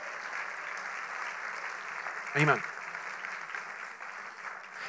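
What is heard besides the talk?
audience applauding loudly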